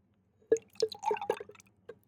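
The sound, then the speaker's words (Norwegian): Thick lemonade concentrate glugging and dripping into a glass, filling about a quarter of it, in a short run of irregular wet plops and splashes, moderately loud, with no one speaking. “Du kan jo da fylle ca. en fjerdedel eh, av glasset med limonadekonsentrat.”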